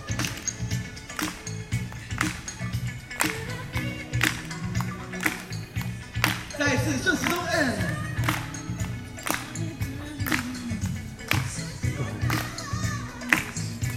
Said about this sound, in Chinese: 然后持续你的身体，持续你的拍手。我们会所有人往顺时钟转一圈，走。